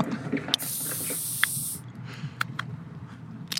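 A sharp click as an energy drink can is opened is followed by a steady, fizzy hiss of gas escaping for about a second. A few faint clicks and soft handling noises come after.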